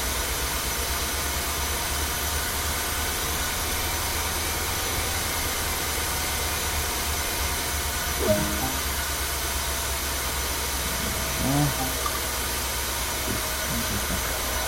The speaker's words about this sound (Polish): huczy to hamulec, wiecie, muszę go przyłączyć na zatrzymanie, dobrze.